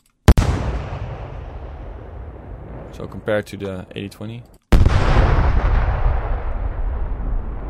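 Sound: explosion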